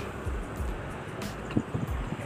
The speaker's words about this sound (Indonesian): kalau ada suara motor atau mobil lewat karena emang ini lagi di pinggir jalan raya